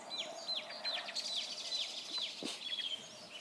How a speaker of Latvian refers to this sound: Labi, ka ir putnu balsis, aizpildu šo neveiklo klusumu.